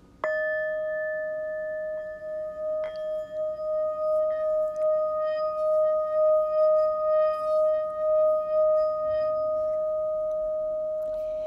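A meditation bell is struck twice, about three seconds apart, and its clear, mid-pitched tone rings on for over ten seconds with a slow, wavering pulse as it sustains. No one speaks.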